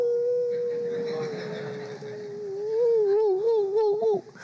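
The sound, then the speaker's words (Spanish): A person imitates a wolf howl with one long, sustained, fairly loud note that turns into a wavering, warbling tone near the end before breaking off. “Hay otros hermanos que son meros, meros falsos, meros falsos, así que eh, siempre dicen amén, amén, hasta que de repente uno los descubre que empiezan a decir, ¡au!”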